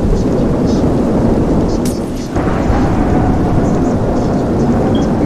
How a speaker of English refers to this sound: Yeah, I created a hurricane. Look at the blocks it's lifting.